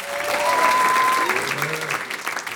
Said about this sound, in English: If you're in a relationship right now, clap your hands. You in a relationship?